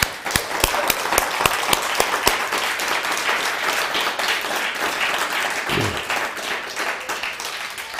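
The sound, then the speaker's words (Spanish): A crowd applauds steadily, a dense wash of many hands clapping, with a few sharp individual claps standing out near the start before the sound settles into sustained, fairly loud applause. “Un fuerte aplauso a todas las naciones.”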